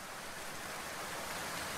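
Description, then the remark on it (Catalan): Steady rain falling, a dense, even hiss with faint patter and no pauses, fairly soft and unchanging throughout, with no voices. “Vaig obrir el paraigua. Demà tornaria a començar tot. Plovia.”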